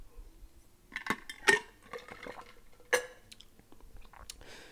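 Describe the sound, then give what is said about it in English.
Quiet sipping from an iced drink that is mostly just ice now, with a few bright clinks of ice knocking against the cup and soft slurping noises in between. No one speaks. “Pause as I take a sip of the bevy, mostly just ice now.”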